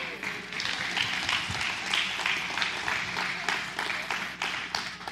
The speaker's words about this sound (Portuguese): Olha, uma salva de palmas.